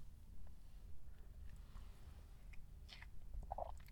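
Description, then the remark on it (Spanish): Someone quietly sips coffee, with soft mouth clicks and a brief slurp and swallow near the end over a low, steady background hum. No one speaks. “Paso para trago de café.”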